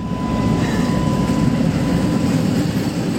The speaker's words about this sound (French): Oh là là, il y a le train qui passe. Il fait un bruit d'enfer, c'est un train qui est super vieux.